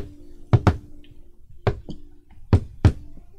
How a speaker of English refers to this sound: As he leads you to the second floor and walks up to a door and knocks.